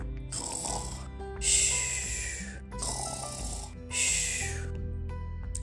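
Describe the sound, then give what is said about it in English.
A voice imitates loud snoring, with four rough, rasping breaths in a slow, steady rhythm, each inhale swelling into a harsh snore before trailing off, clear with no talking. “Then the three bears heard loud snores from upstairs.”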